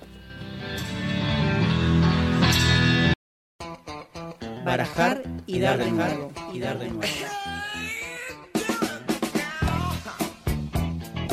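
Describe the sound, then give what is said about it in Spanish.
A short burst of full, loud music starts things off, then after a brief silence a punchy sung jingle follows with quick vocal phrases over a rhythmic backing, ending in sharp accented hits. “Así que bueno, ya venimos, este, nos vamos a ir a escuchar una musiquita y nos vamos a acomodar”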